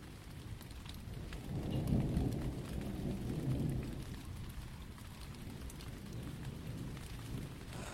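Steady rainfall hisses throughout while a low rumble of thunder swells and rolls in the middle before fading back under the rain. No voices.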